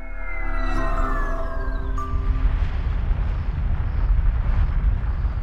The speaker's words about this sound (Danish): Det her, det er et vulkanudbrud. Og jeg tror, der kommer endnu et. Hold dig for ørerne.